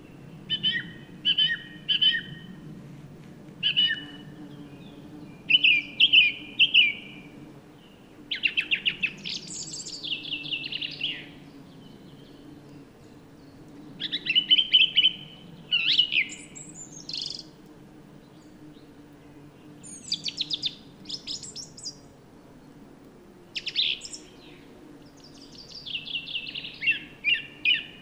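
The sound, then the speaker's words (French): A thrush sings in a mixed conifer and broadleaf forest, loud bright phrases of short repeated whistles and trills broken by brief pauses, over a steady low humming drone of bumblebees foraging on willow catkins; recorded in mono with a parabolic microphone. “La Grive et les bourdons”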